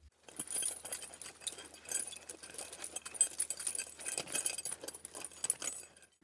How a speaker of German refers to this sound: Das hört sich nicht nach Kuhglocken an. Was war das? also es klingt äh, sehr glockenhell. Was ich sagen wollte, war das Geräusch klirrender Ketten